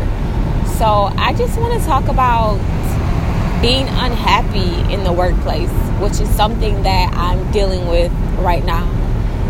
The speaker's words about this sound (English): Hey guys, I am just leaving work, driving on the freeway, and just so happy to be on my way home. You may hear a lot in the background, but hopefully you can still hear me pretty clear.